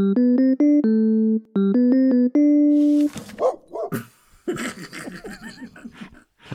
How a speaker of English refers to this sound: can we have the dog noise here and going? Woof, woof